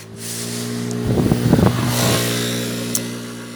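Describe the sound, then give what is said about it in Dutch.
A small motor scooter buzzes past, its engine rising to a louder whine in the middle before fading away over a few seconds, with no one speaking. “Een scooter.”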